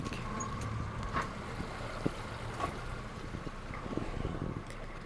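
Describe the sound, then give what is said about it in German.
A steady low rumble of a boat moving across water among water lilies on a trip to the Vierländereck (four-country corner), with a constant wash of wind and water noise and occasional small splashes or knocks, no voices. “Und ab geht's aufs Boot.”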